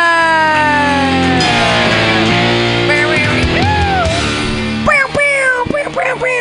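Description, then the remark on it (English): A loud, blaring fake air horn sounds at a comedy show to introduce the next comedian, almost continuously, its harsh layered tone wobbling and bending in pitch before breaking into a few choppy, shorter blasts at the end. “As a fake air horn, your next comedian.”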